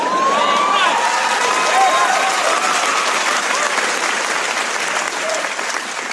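Sustained audience applause, a dense steady wash of clapping for about six seconds, with a few faint cheers and whoops rising over it before it slowly begins to thin.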